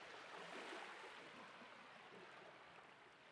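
A steady, rushing wash of sea water with a gentle swell early on, waves reaching the shore from time to time, continuous with no voices.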